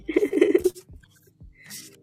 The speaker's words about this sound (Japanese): おニューのカードです。すごいな。これが本当のカードを切ってる音ですよ。すごい、あの、マイクに寄せて切りますね。